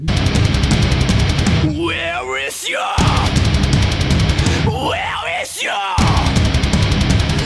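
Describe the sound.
A heavy metalcore song blasts loud and dense with distorted guitars and pounding drums, while harsh screamed vocals cut through; twice the wall of noise briefly drops away, leaving the voice exposed.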